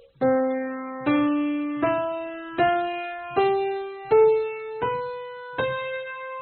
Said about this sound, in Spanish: Por ejemplo, una escala tocada a tiempo suena así.